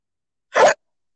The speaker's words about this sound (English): I just got the hiccups, of course.